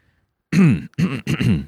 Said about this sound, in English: Got to clear my throat for that one.